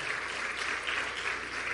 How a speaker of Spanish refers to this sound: Dale un fuerte, fuerte aplauso al que es digno de toda gloria, de toda honra, de toda alabanza.